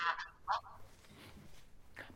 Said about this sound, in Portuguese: Alguém tem um som que está a provocar retorno.